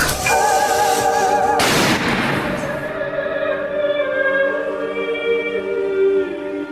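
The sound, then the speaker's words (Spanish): A single sharp gunshot bursts out inside a house partway through, loud, set against sustained music whose tones keep ringing and slowly fade after the blast. No one speaks. “El disparo detona en la casa y la madre mira sobresaltada hacia arriba.”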